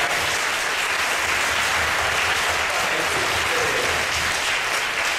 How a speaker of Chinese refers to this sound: 我们要特别来欢迎今天受洗的弟兄姐妹，他们的亲友、亲友团，我们请他们站起来，我们要热烈的掌声来给他们欢迎。